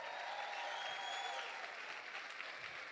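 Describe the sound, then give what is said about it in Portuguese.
A church audience claps steadily for a man asked to stand up, a dense wash of applause at a fairly even level for a few seconds, with no voices standing out above it. “Fica de pé, fica de pé. Dá um aplauso para ele aí.”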